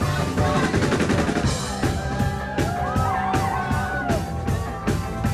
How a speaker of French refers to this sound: Un peu comme ce que j'ai vécu il y a quelques jours pour leur release party au pop-up du label à Paris. où j'ai tendu mon micro euh, dans la foule.